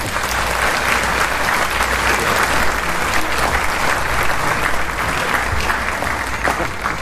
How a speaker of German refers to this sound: Begrüßen Sie mit mir, mit einem tosenden Applaus